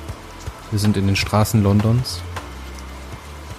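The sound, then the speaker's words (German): Steady rain, played as a background sound effect, patters softly while a man speaks over it, the hiss continuing evenly through the pauses. “Ihr hört das im Hintergrund, denn jetzt kommt der Regen mit dazu.”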